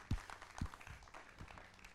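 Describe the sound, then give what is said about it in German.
A church audience claps for the LKG church in a dense, steady patter of applause, fairly soft overall, with a few low thumps standing out early on. “Ihr könnt gerne der LKG mal einen Applaus geben, einen kräftigen.”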